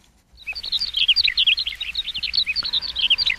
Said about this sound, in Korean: 새 울음소리입니다. 어떤 분이 새 울음소리가 아니라 새 웃음소리 이렇게 표현하자고 했는데 그 얘기가 더 좋죠? 새 웃음소리.